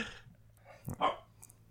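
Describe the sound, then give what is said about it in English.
A puppy gives a short, sharp double bark, a quick high yip followed by a louder one, barking while someone reads out a phone number. “God damn it, puppy! Will you shut the fuck up? Just bark over the number.”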